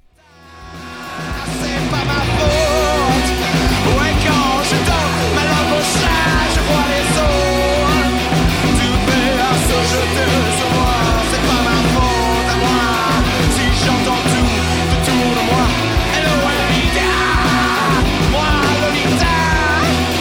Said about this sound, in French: Et surtout, via la playlist, j'ai découvert une autre version qu'il chantait donc avec son groupe